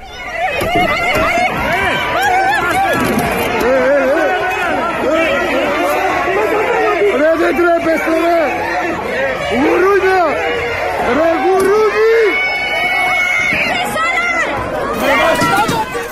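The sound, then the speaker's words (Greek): A tense clash between protesting doctors and riot police at the Ministry of Health as police move in over a blocked road, using tear gas and batons: many voices shouting and yelling over each other with hurried movement and scuffling, loud and unbroken from start to finish. “Κάπω έτσι σήμερα η κυβέρνηση υποδέχθηκε και χειροκρότησε τους γιατρούς με ματ δακρυγόνα, γκλοπιέ, του γιατρού που είχαν πάει να διεκδικήσουν αυτονόητα πράγματα.”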